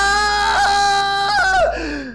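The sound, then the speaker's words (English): A loud scream of pain as a pinky finger is cut off with a buzz saw rings out for about two seconds, its pitch wavering and bending before it trails off into a strained moan. No one speaks. “lets out a scream”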